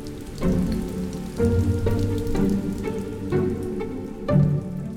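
Steady rain patters on a hard surface, a dense continuous hiss with heavier drips and splashes surging every second or so, fairly loud, no voices.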